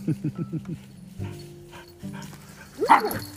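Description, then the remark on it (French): A dog gives a quick run of about five short, clipped barks, then falls quiet before a higher yelp near the end, with a person's voice in the background. “Eh, mais il va partir dans la forêt, mon chien”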